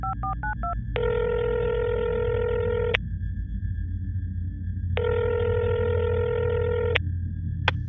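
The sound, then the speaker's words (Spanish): A quick burst of phone dialing tones, then two long ringback tones about two seconds each with a pause between, over a low background hum and no speech. “Bueno, tío, le voy a, pegar un toque.”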